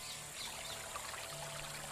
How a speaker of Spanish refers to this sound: Ya no escucha la voz de su padre ni de su madre, solo oye el chapoteo del caballo en el agua